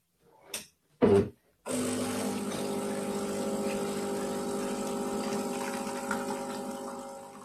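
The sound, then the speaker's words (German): Two brief knocks, then a coffee machine grinds beans with a loud, steady, droning whir that holds unbroken for about six seconds, with no one speaking. “Aber deine Kaffeeaufnahme ist ja dann ungestört drauf, ist doch auch was.”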